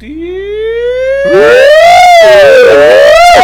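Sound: siren sound effect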